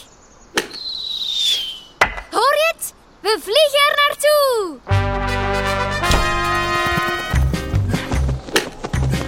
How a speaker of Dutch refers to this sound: Het klinkt wel als hamergeklop. Daar, daar wordt een tent opgezet. Heeft u soms hulp nodig? Nee, bedankt. We zijn bijna klaar.